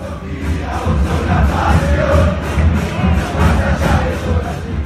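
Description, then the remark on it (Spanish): A large football crowd at La Bombonera stadium chants loudly in a steady, pulsing rhythm, the massed voices booming and echoing across the steep stands with no break for the whole stretch. “Y como es tan perpendicular, eh, se genera una acústica en el estadio muy fuerte, pero muy, muy fuerte.”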